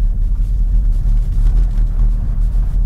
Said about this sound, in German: Leider neigt das Fahrwerk manchmal zum Poltern. Also wenn es uneben wird, dann kann es echt laut werden. Gerade hier so auf Kopfsteinpflaster.